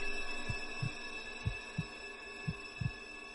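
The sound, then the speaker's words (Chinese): A person's own slow heartbeat, heard while sitting in the dark on a seat in a subway train inside the depot, thuds three times, each a low, soft lub-dub pair about a second apart, over a faint steady hum with no voices. “我摸索着在座位上坐下来，我听着黑暗中自己的心跳，不知道过了多长时间”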